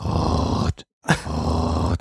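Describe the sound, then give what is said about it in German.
A voice imitates the furniture casters under sliding doors in sci-fi series such as Star Trek: a low, rumbling, grinding vocal noise in two sustained bursts, each lasting under a second, separated by a brief silence. “Ja, da stehen Leute auf jeder Seite und ziehen die auseinander. Ja, ja, und da sind Möbelrollen drunter und das macht immer.”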